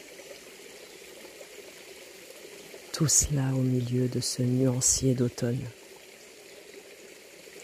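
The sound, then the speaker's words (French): A steady, gentle rush of stream water runs over small cascades throughout, soft and continuous, with a man speaking briefly over it in the middle. “de tous ces petits mouvements induits par le courant et les petites cascades.”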